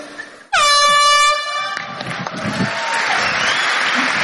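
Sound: applause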